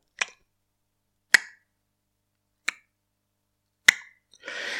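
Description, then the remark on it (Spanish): A failing hard drive makes the so-called click of death when connected: four sharp, isolated clicks spaced about a second and a quarter apart, each with a brief metallic decay, followed by a soft rushing whir at the end. “Hizo eso que conocemos como el clic de la muerte, que conectas el disco duro y empieza a sonar”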